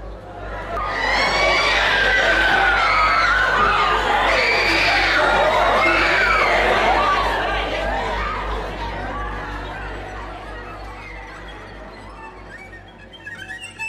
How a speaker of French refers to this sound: Cette fois, des vidéos montrant les élèves hurlants, en transe, et finalement transportés par camion dans les hôpitaux voisins, furent tournés. En voici un extrait sonore.